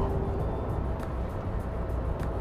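Steady low road rumble inside a moving car, recorded while driving as a microphone test: a constant engine and tyre drone at an even level, faint light ticks now and then, and no voices.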